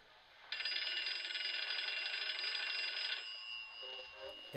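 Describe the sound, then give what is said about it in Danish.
A telephone bell rings loudly in one sustained, rattling burst of about two and a half seconds during a theatre performance, then cuts off, leaving faint background noise with a brief tonal trill at the end. “Skal de absolut ringe her midt i forestillingen? Man kan høre dem helt nede i salen.”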